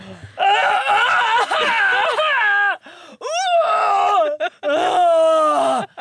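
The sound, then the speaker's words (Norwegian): A voice imitates a man vomiting in a bathroom: long, strained, wavering groans that sound almost like sobbing, several loud heaving bursts separated by short breaths. “så går han inn på badet, og så hører jeg han spy.”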